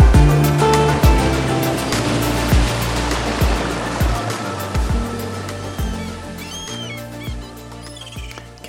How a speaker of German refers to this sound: Gestern bei meiner Runde am Strand. Herbstliches Wetter, Wind, Regen, laute Geräusche hat mir die Möglichkeit gegeben, einmal den Fokus auf meine Gedanken wiederzulegen. Es waren gar nicht so viele Menschen am Stand